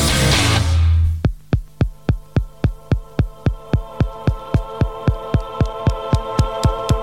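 A short burst of rushing noise gives way to an electronic song intro: a steady, heartbeat-like throbbing pulse repeating over a low sustained hum, loud, with no voices.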